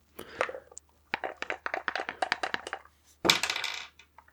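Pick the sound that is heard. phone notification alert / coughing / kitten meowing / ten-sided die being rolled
ten-sided die being rolled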